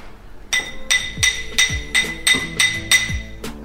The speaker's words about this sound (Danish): Og der er metallet, øh, der er guldet jo sådan fleksibelt, så jeg kan, kan hamre på det, og så strækker det sig. Så nu tager jeg lige hammeren og hamrer lidt.